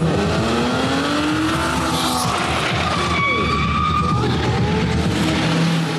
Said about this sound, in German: Der Geruch von Benzin, heulende Motoren, Abgase, jede Menge Schrott. Jahr für Jahr kehren diese Momente auf Deutschlands größten unbebauten Marktplatz zurück, wenn Monster Trucks ihre Show abhalten.